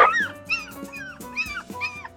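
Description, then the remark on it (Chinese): A frightened golden retriever whimpers in a series of high, wavering whines, about five rising-and-falling cries in a steady rhythm, moderately loud with a faint low hum underneath. “你看狗狗都害怕了，你吓到它了。”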